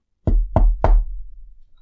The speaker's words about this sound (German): Auf einmal klopft's wieder an der Tür.